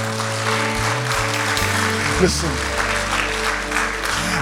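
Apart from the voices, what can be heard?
audience applause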